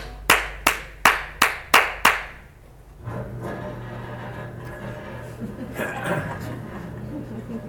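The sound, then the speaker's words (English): Six sharp, evenly spaced clacks ring out, then a garage door opens with a steady low motor hum and a rough rattling rumble, moderately loud. “That's my favorite sound here. the, the, garage door opening.”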